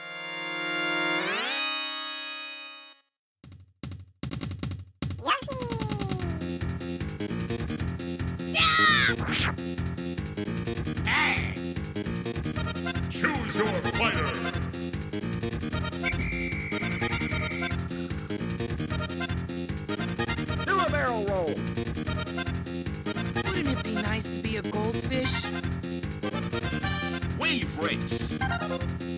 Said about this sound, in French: Jingle.